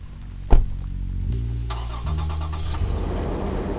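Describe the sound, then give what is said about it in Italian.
A car engine cranks with a sharp click and catches, then settles into a steady low rumble that keeps running, with no one speaking. “No, mi accendo una sigaretta e monto anch'io in macchina.”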